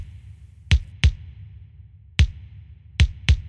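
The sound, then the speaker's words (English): A punchy SP1200-style kick drum sample hits five times in a loose pattern, mostly in pairs, each a deep low thump with a short bright click, over a faint low hum with no talking. “So I'll just take a basic, you know, SP1200-ish kick drum sound like this.”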